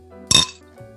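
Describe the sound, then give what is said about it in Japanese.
A single bright glass clink rings out, a short sharp toast with a brief shimmering tail, over a low steady background hum with no one speaking. “乾杯しようよ、乾杯。”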